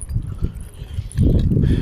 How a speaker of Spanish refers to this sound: Aquí saludando a un animalito de aquí del campo. Un precioso equino. Caballo blanco.